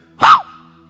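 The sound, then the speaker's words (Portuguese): A person imitates a small dog's fierce bark at a passer-by with one sharp, loud yap that drops in pitch, followed by a faint steady hum. “Com, o cachorrinho gritando ali, dando aquele grito ali, endemoniado ali para mim.”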